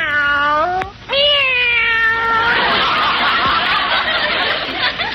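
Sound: cats meowing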